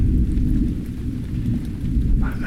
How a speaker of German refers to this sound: Irgendetwas ist da in der Ferne. Das Gewitter, der leichte Regen